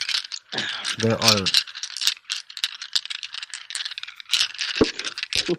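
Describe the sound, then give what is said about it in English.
Picture dice (Rory's Story Cubes) clatter and rattle continuously as they're shaken in cupped hands, fairly loud, with a brief spoken phrase near the start. “that is the sound of dice in my hands.”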